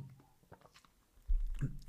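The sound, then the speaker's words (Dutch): Someone takes a quick sip of a drink, with faint wet mouth sounds followed by a louder, low thumping rumble as the cup is handled. No one speaks. “Ja, een slokje drinken ook maar.”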